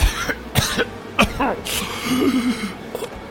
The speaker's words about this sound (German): hustet einen Batzen Blut aus.